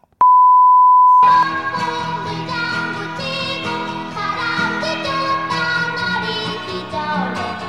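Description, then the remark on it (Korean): A steady, loud beep tone covering a missing lyric holds for about a second, then the instrumental intro of a spring-themed song for a lyric quiz begins and carries on with layered melody and rhythm to the end. “빈칸에 삐 들어갈 가사는 무엇이었을까요?”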